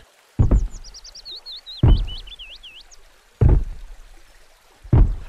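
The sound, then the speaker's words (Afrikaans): A boat being rowed on a river: four heavy oar strokes splash through the water at a slow, steady pace, each trailing off into rippling water, while a bird whistles a twittering song above. “Sy gaan soontoe om te kyk wat aangaan en sy sien 'n boot aangeroei kom.”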